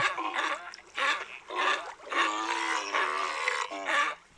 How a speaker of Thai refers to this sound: ส่วนสิงโตทะเลที่พบได้บ่อยก็คือสิงโตทะเลแคลิฟอร์เนียเมื่อโตเต็มที่ก็มีน้ำหนัก 300 กิโลกรัมค่ะ